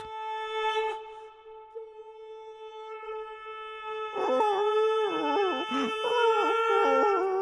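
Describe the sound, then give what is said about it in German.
A greyhound howls in a long, steady, high tone, then breaks into wavering, yelping whimpers that rise and fall in pitch. The sound is fairly loud and there is no talking. “Psst, beruhige dich. So schlimm ist es doch nicht, armes Windhündchen.”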